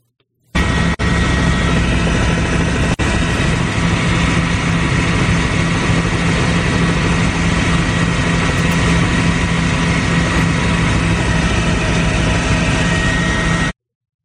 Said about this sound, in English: All right, here is President Trump. It is his beautiful, beautiful Boeing arriving at LaGuardia in New York.